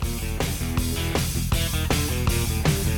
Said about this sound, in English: But listen, listen to this riff right here.